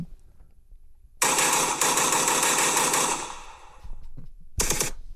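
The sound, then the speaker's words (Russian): Automatic gunfire rattles out in a loud, sustained burst lasting about two seconds, trails off, then a second short burst follows, shot at a ceiling in Omsk, Russia, during an Old New Year celebration. Sharp, with no voices. “У меня есть запись стрельбы.”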